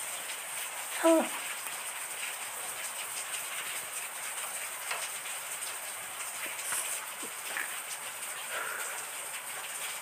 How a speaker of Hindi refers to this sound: अभी बार बारिश हो रही है